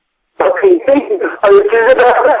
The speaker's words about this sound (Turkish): Çekmiyor telefonun. Çekmiyor telefonun. Bağırtma beni. Çeken bir yere git. Anlaşılmıyor dediğin. Telefonun çekmiyor. Git çeken bir yere git.